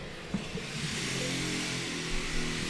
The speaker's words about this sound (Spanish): No, sé si alguien anda en una podadora, acá cabrón. Es una podadora